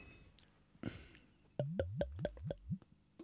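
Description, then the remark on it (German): A soft clink or rustle during a toast, then a quick run of about six gulping, glugging sounds in a steady rhythm as someone takes a first sip of a drink, with no talking. “Und das ist das perfekte Timing für den ersten Schluck.”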